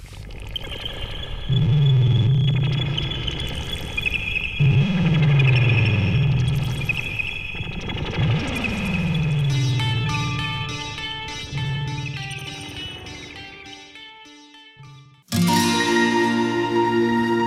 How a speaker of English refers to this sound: Let's go listen to a song.